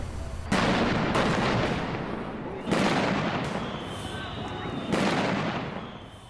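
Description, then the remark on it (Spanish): Several loud gunshots crack out at irregular intervals, fired from outside inward during a violent confrontation with state security forces after a protest gathering, each booming report trailing into a long reverberant echo, with a steady background rumble between the shots. “pero luego empiezan disparos de afuera hacia adentro.”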